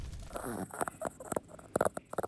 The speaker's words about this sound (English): Was that your stomach growling?